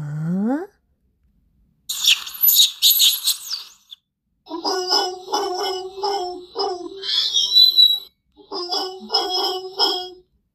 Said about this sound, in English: Yes, yes, it was a monkey. He was too naughty.